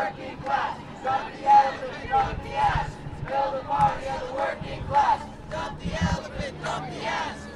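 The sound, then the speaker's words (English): A large crowd chants in unison at a protest march gathering at Philadelphia's City Hall, loud repeated phrases shouted in a steady rhythmic cadence, many voices blending into one rolling, pulsing call. “These marches are gathering at and departing from Philadelphia's City Hall.”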